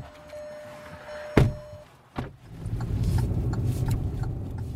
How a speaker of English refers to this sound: pile into our car and head up the mountain.